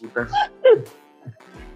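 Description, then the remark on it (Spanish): A dog barks in a few short, sharp bursts, loud yips in quick succession, while people talk. “Todos nuestros problemas son el negro, el perro, las alarmas”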